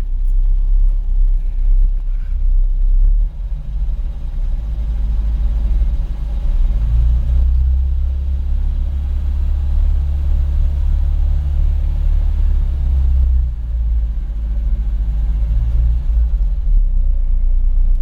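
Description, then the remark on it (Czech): A car nicknamed Faťan idles steadily, a deep continuous rumble with a low throbbing hum that holds even throughout, with no speech. “No a jaká je to doba, co ten Faťan tady vrčí?”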